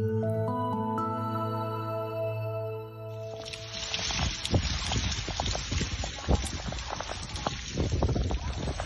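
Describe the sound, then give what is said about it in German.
A few seconds of sustained tones give way to a dense, steady roar of heavy rain in the Emsland, northern Germany, after days of rain at about 15 °C, with water gushing and splashing as even the strongest rain gutters overflow. “Dort regnet es seit Tagen schon so viel, dass selbst die stärksten Regenrinnen überlaufen bei Temperaturen um die 15 Grad.”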